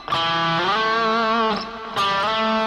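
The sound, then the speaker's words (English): A distorted electric guitar plays a directive slide, holding one note, then purposely sliding up to another, with a few more gliding pitch changes. It plays alone and loud, with no talking. “That would be a directive slide where I'm I'm uh, purposefully starting or stopping on A and B, whatever those notes are going to be.”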